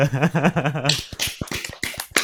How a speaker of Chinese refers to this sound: 来宾掌声鼓励一下。